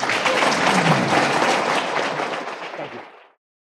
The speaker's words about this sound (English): Everyone, please give a round of applause to Ben Sasse.